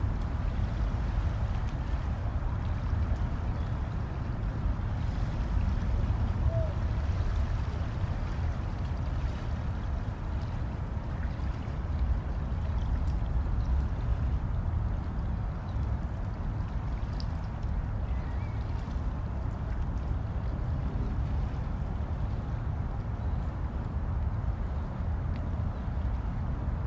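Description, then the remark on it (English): Steady, dense water noise with a low rumble, like river water lapping against moored boats, continuous for the whole stretch, with no voices. “You see them lapping and tumbling towards you.”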